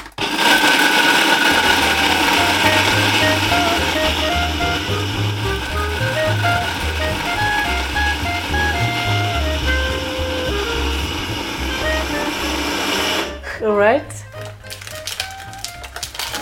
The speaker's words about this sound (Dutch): Ja, ik ben mijn blender al aan het pakken. Zo, gaan we even lawaai maken.